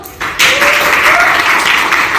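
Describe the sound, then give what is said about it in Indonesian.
A burst of applause welcoming a guest breaks out after a brief quiet moment, a steady, dense patter of many hands clapping that holds at an even loudness until the end. “Bisa tepuk tangan dulu.”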